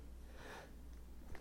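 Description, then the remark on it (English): A single short sneeze, a soft, breathy burst of noise that rises and fades within a fraction of a second, followed by quiet. No one speaks. “Bless you.”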